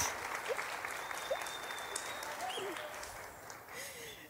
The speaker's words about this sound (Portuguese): Talvez muitos de vocês já conheçam. Pode aplaudir.